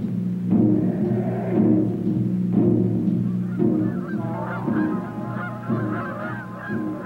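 A flock of migrating geese honks continuously, many overlapping calls repeating in loose rhythm over a low steady rumble, loud throughout with no talking.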